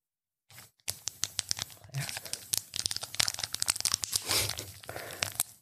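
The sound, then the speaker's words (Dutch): A condom wrapper is torn open, a run of sharp crinkling rips and crackles over several seconds, irregular and fairly loud, with no talking. “En nog wat condooms. En dat is het openmaken van een.”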